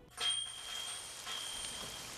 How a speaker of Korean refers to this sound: 아, 웬 비야. 기분도 꿀꿀한데 날씨도 안 도와주네. 아, 우산도 없는데. 아휴, 좀 맞지 뭐. 어? 비 맞으면 감기 들어.